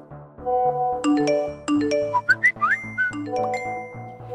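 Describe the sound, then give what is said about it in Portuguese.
A dense pile-up of mobile phone notification alerts across Brazil, carrying news of the attack on presidential candidate Jair Bolsonaro: overlapping chimes, dings and short rising whistle-like blips going off one after another, loud, with no talking. “Há exatamente um ano, por todo o Brasil, os celulares explodiam com notificações.”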